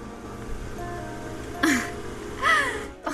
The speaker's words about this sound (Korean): 에어컨 소리 너무 커.